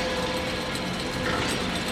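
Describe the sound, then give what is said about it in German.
Interlocking gears click continuously in a dense, steady mechanical whir, a fast stream of small ratcheting ticks that never pauses, with no voices present. “es waren Zahnräder mit Zähnen, die perfekt ineinander passten. Ein ununterbrochenes Klicken, ein unendliches Lied.”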